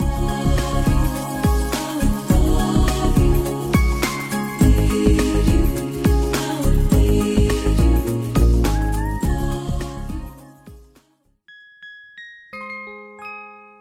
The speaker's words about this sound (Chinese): 如果有一个声音让你联想到闪闪发光的星星，一颗一颗的，特别的饱满圆润，让你在它轻柔悦耳的旋律里安然入眠，那会是谁发出来的声音呢？嗯，没错，那就是八音盒发出来的声音。